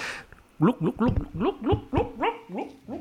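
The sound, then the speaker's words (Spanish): A voice imitates bubbling water with a rapid series of about ten gurgling, pitch-rising pulses, fairly loud and rhythmic, like liquid glugging or gargling. “Esto es el viento y el agua.”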